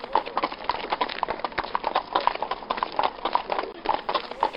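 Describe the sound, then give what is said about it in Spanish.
Steady clip-clop of a horse's hooves pulling a cart on a delivery round, a brisk even rhythm of sharp knocks on hard ground, with a faint rattle of the cart beneath and no one talking. “Hacer todo el recorrido con un carro, con caballo.”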